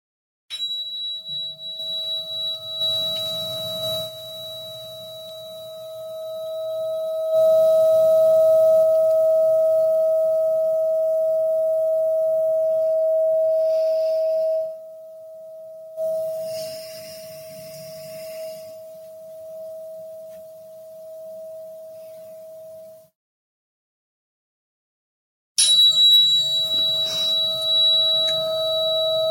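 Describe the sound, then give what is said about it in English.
A steady, pure sustained meditation tone, played to begin a guided meditation with deep grounding breaths, hums for about twenty seconds, joined by fainter higher tones, then fades to silence before a brighter tonal sound returns near the end. “So let's just start with some deep grounding breaths and I'll play this tone.”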